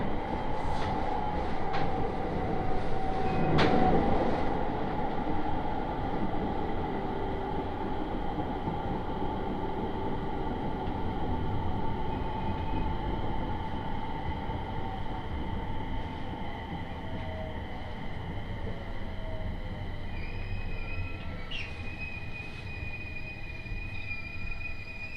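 A local Aoimori Railway train runs steadily along railway tracks from Aomori to Noheji with a constant low rumble and rattling wheels, a brief high whine early on, and thin high-pitched squeals near the end.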